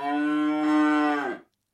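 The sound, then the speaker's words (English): A single long cow moo, loud, holding a steady low tone for over a second before cutting off into silence. “This is the cow with the crumpled horn”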